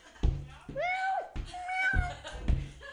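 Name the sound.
cat meowing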